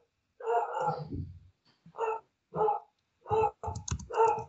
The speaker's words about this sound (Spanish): El buen chato está ladrando de fondo. No, de hecho mi chato es Milo.